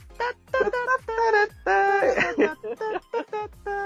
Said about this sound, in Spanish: Qué guay, los gatos están culeando